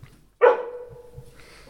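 A dog lets out one sharp, loud bark that trails off into a drawn-out, whiny tone, heard close up with nothing else going on around it.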